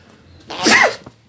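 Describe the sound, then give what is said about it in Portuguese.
A single sharp sneeze bursts out, rising quickly and fading within half a second, with no talking over it. “Saúde.”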